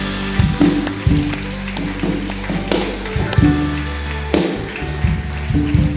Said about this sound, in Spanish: Fuerte, junte sus palmas.